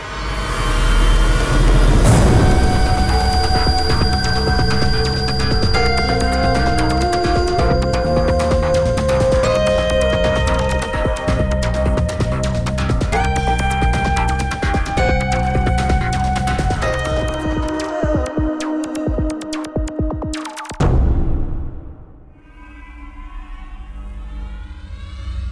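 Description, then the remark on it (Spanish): A loud, dense electronic drone with sustained whining tones and shifting pitches, like a sci-fi spaceship rumbling, from an experimental cell phone ringtone made to sound like a spaceship, cuts out abruptly near the end, leaving a faint airy hiss. “Creamos un nuevo tono de llamada que suena como una nave, nada más.”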